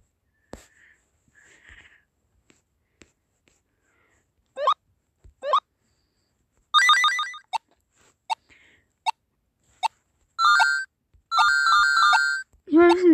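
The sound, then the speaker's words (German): A phone ringtone plays in short melodic bursts, starting with quick chirps and building into longer repeated tonal phrases, fairly loud, with little else around it. “Ja, mein Klingelton, Leute. Ich habe ihn gerade gehört.”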